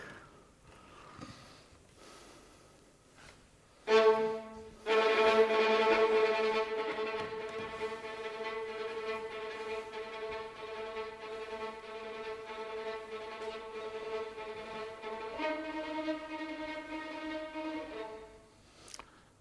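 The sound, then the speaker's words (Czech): The orchestral opening motif of a piece inspired by Italy, a motif that runs through the whole work: long, sustained tones, a brief note, then a loud held note that lasts about ten seconds before dropping to a lower held note and fading out. No one speaks. “Možná, že ano, takový první motiv, který provází celé to dílo, zní takhle.”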